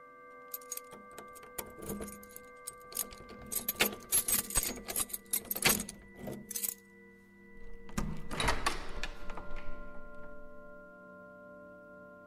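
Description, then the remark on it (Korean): Keys jangle and scrape as a building security guard slides a key into the lock of the upstairs apartment's door and turns it with a series of metallic clicks, followed by a heavier clunk of the mechanism releasing. “경비 아저씨가 열쇠를 끼워 돌리자 드디어 미지의 공간 소음의 원천지인 윗집이 모습을 드러냈다.”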